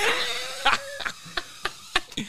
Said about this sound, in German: es ist eine kleine äh, Drohne, die ist ungefähr, ich sag mal, Untertassen groß